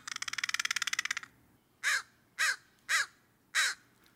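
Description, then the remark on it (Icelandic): A corvid opens with a rapid, rattling burst of clicks, then gives four loud, harsh caws spaced about half a second apart, clear with no talking. “Þekkt er að krákur og hrafnar hafi lengi þótt bráðgáfið dýr”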